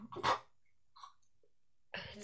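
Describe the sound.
One loud, sharp sneeze bursts out at the start, then a short quiet stretch with a faint sound before someone starts talking.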